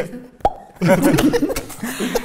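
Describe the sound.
A voice imitates a champagne cork popping: one sharp mouth pop, followed by a longer burst of fizzy, gurgling vocal noise.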